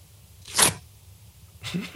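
A quick rip of two stacked sheets of thin paper, a short crisp burst of tearing, followed near the end by a second rougher rustle as the torn sheets are handled again.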